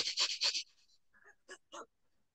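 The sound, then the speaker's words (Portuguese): A person breathes in quick, heavy pants, a rapid cluster of three breaths followed by two more spaced out, fairly loud, demonstrating how one breathes while running, as part of a yogic pranayama breathing practice. “por meio de uma prática yógica, que é o pranayama, a respiração, você entrar no corpo. Você está correndo e como é que você corre?”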